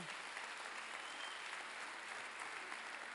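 A crowd applauds steadily, a dense wash of many hands clapping at a constant level for a few seconds, with no voices standing out. The applause thanks the sound engineer for his hard work.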